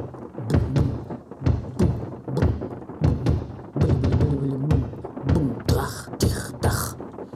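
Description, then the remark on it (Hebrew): Repeated knocking on a door, a series of sharp thuds in uneven bursts, fairly loud, with a few brief bright rattling hits near the end, while hail falls outside. “עוד מישהו על הדלת דופק?”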